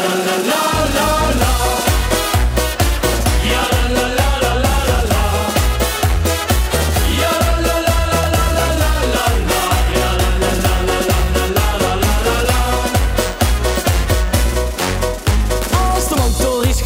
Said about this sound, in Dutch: Carnaval 2020, de carnavalsplaat